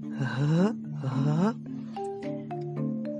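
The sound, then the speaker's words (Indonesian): A voice imitates an eerie snoring sound that Balinese people call ngerege: two long rasping, groaning breaths in a row, followed by a softer, drawn-out wavering hum, fairly loud with no other talk. “Saat aku mendekat ke arah jendela, aku mendengar sebuah suara. Kalau orang Bali bilang itu ngerege. Suara seperti ini.”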